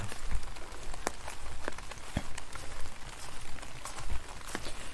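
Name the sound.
rain falling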